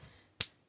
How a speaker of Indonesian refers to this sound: itu suara tepukan tangan guys iya, maaf kalau ganggu